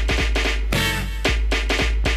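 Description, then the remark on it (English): New Jack Swing music plays loud and alone: punchy, evenly spaced drum-machine hits and heavy bass, with a brief sustained synth swell in the middle before the beat returns. “That's New Jack Swing.”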